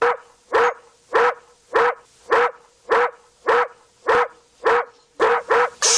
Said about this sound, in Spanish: El perro está ladrando.